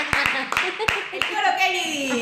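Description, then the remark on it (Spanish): Five sharp, loud hand claps by a boy in a hood, at an uneven pace, fading out partway through, while a voice talks over them continuously. “Nos llevamos al chico de capucha que nos venga a aplaudir.”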